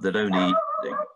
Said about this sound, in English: that's my dog